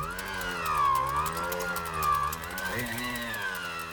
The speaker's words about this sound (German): Das ist ein Dynamo. So klang es früher häufiger, wenn wir mit dem Licht am Rad unterwegs waren. Der Seitenläufer Dynamo kratzt am sich drehenden Hinterrad und erzeugt durch die Reibung Strom.